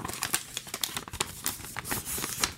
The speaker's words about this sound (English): Then fold the paper in half along the original centre crease and tape the two sides together to form the boat's bottom.